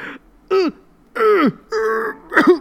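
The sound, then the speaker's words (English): A person gives a few small, throaty coughs and throat-clearing grunts, four short voiced bursts with brief pauses between, acted out as a deliberate imitation of coughing during a video call meeting with a coworker. “Maybe it was something I ate or whatever, and I, I, I had to cough a little.”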